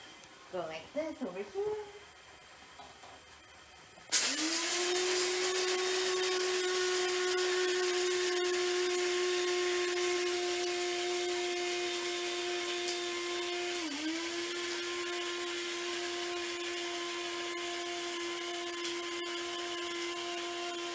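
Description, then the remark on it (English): A brief murmur of speech, then an inexpensive electric coffee grinder starts abruptly with a loud, steady whine that holds for about seventeen seconds, dipping briefly near the end as beans rattle inside. “Still hearing some beans rattling around in there. This is not a very expensive coffee grinder, as you can probably tell.”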